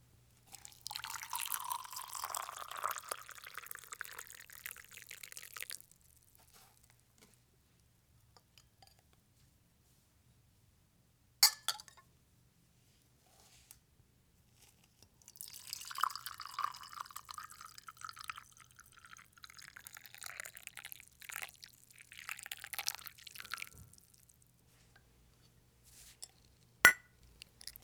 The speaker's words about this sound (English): This has to be my favorite part of making tea. I just love the way it sounds when you pour hot water into a mug. It's so relaxing to me. Take a listen.